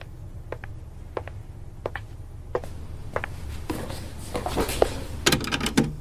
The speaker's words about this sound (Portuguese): tô fechando a porta. Minutinho.